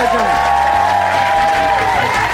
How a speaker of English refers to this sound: Uh, so, will you please give a massive uh, round of applause to everyone uh, tonight,